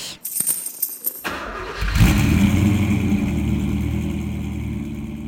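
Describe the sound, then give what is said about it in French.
A classic 504 convertible car's engine cranks with a few clicks and sputters, then catches and settles into a steady idle with some revving, no voices present. “Et en tout cas, je roule majoritairement dans une 504 cabriolet.”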